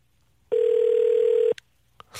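A telephone ringback tone sounds as a radio host places a call to a listener: one steady, mid-pitched electronic hum lasting about a second, then a soft click and quiet. No one speaks.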